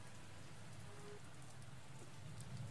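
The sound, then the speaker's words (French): Steady rain falls throughout, a soft, continuous patter with a low rumbling undertone and no voices, heard at a fairly quiet, even level. “Euh, La pluie est finie.”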